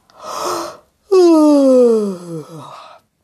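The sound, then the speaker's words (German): A tired person gives one long yawn: a breathy inhale, then a loud voiced sound that slides downward in pitch and trails off into a soft sigh. “Und als nächstes gähnt Frau Usebuse.”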